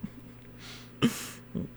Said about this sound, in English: Is that a dog barking on your side or mine?